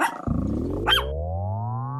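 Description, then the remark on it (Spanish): A deep, sustained dog growl that swells into a roar, its pitch climbing steadily for about two seconds. Loud, with no talking over it. “Ven, perrito, perrito.”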